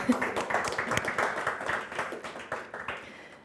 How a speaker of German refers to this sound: Herzlich willkommen und einen Applaus für die beiden Anwesenden.